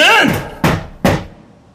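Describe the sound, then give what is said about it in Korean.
A brief voice trails off, then two firm knocks land on the door of a police interrogation room, spaced about half a second apart, each with a short hollow ring before silence. “문에서 울린 노크 소리가”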